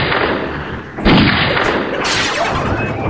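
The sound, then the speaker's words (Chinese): Loud, dense gunfire and cannon blasts in a Mario video game, with tanks firing at Mario during a gunfight in the city streets, a heavy boom about a second in and another burst of shots later, over a constant rumbling background; no one speaks. “哇，城市的街道里还爆发了枪战，怎么都朝我开炮啊！”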